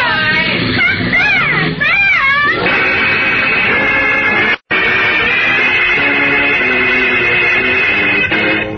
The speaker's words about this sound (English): the car he is driving swings around a corner at breakneck speed and disappears into the gathering dusk.